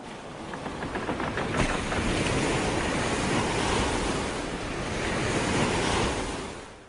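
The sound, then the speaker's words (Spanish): Steady rushing ocean surf with wind blowing across it at sea, a broad continuous roar that swells and eases gently over several seconds, loud with no voices. “ahora se echaban a la mar, acompañados de 40 navíos al mando del conde de Buren y de casi dos mil soldados alemanes.”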